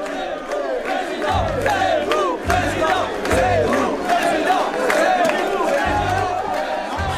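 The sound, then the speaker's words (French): A large crowd chants the slogan "Zemmour président" over and over as Eric Zemmour arrives before a mass of cameras and microphones, voices rising and falling in unison amid loud cheering and clapping, with a dense roar of excited voices throughout. “Quand il arrive euh, devant une nuée de, de caméras, de micros, la foule applaudit euh, Zemmour président, Zemmour président.”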